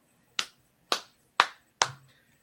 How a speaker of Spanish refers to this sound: eso, esos aplausos han sonado muy a calle Lario.